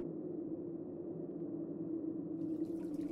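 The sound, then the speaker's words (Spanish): Water falls steadily from a fountain in a garden in a continuous, even splashing rush, unchanging, with no voices. A faint brighter trickle creeps in near the end. “El agua cayendo de la fuente era lo único que podía escuchar.”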